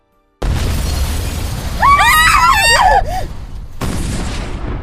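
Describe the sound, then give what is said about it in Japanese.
An enemy artillery shell explodes right beside beds in a maternity hospital in Paris during German bombardment: a sudden, loud, close explosion erupts into a sustained roaring rumble and crash of debris, with shrill wavering tones in the middle before the noise cuts off and continues more quietly. “間もなく敵の砲弾が私たちの寝台のすぐそばで爆発したのです。”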